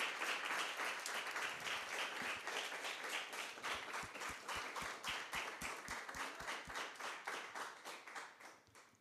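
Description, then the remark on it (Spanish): An audience gives a loud round of applause to the Lord, steady for several seconds, dense overlapping claps that settle into a faster rhythmic unison clapping before gradually thinning out. No talking is heard. “Le damos un fuerte aplauso al Señor.”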